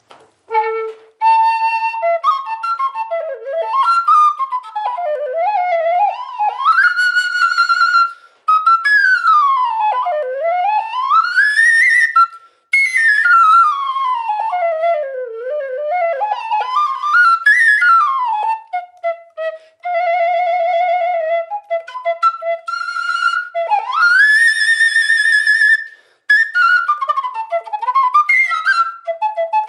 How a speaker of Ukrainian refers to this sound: А коли ти їй дав корок, вона не хоче відтворювати таке. Ну я знайшов все-таки, постарався, придумав, як би це зробити, і знайшов. І от тепер це вже фактично фрілка аплікатура, а звучить супілковою.